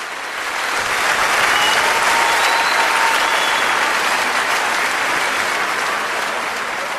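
Sustained applause from a large concert audience at the Teatro Royal Carré in Amsterdam on the night of 26 June 1989, lasting long minutes after a live orchestra performance; a dense, even wash of clapping that holds steady and loud for the whole stretch with no voices standing out.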